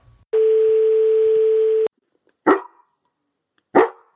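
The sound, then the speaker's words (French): A steady electronic tone sounds for over a second, followed by two sharp, loud barks from Piper, a guide dog, spaced about a second apart, with no talking. “Vous allez voir, celui-ci est surprenant, puisqu'on n'entend pas seulement la voix de la bénéficiaire.”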